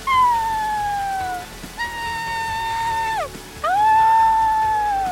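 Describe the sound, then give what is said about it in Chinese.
A small fox, stranded in the middle of a rushing river in stormy wind and rain, wails three times in long, drawn-out, mid-pitched cries, each sliding and bending in pitch, loud over a faint steady noise in the background. “刚刚可怕的声音，原来是那只小狐狸哀嚎哎！”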